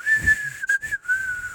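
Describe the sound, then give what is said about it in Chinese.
A clear human whistle holds one steady, fairly high note for about a second and a half, wavering slightly and briefly breaking in the middle, with no talking over it. It is whistled from under an empty cardboard box at a street corner. “嘿，突然间，一声清脆的口哨吹了出来，威力停了下来，到处找，看看是谁在吹口哨。”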